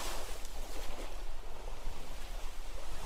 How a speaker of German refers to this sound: Der Wind, die Wellen.